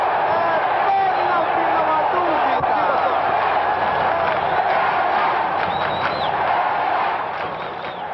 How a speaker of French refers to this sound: Il s'élève pour reprendre de la tête. Il est bousculé par un arrière qui marque contre son camp. La foule gronde.